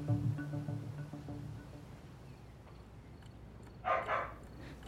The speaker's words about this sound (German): Ihr Fox Terrier bellt wie verrückt.